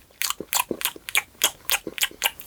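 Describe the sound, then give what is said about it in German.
Someone imitates a hedgehog crunching snails with their mouth: about ten crisp, smacking crunches in a quick, uneven chewing rhythm. The sounds are fairly loud and stand alone, with no talking. “Hast du schon mal einen Igel essen hören?”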